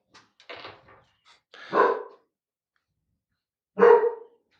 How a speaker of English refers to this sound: Dog.